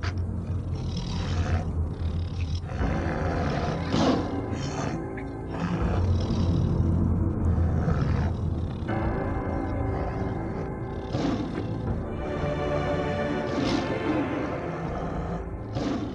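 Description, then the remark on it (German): A tiger in a dark cage with straw growls and roars, a run of deep, rumbling snarls that swell and fade over and over with no letup, loud and raw throughout. “taucht plötzlich aus der Dunkelheit ein Tiger auf.”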